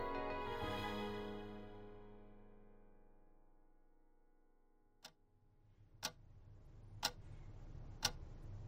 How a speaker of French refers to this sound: L'aiguille de la pendule marqua minuit.